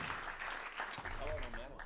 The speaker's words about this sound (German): Komm noch einmal zu uns da vorne auf die Bühne. Ein Applaus für den Bongmann. Glücklichen Gewinner für den Bongmann.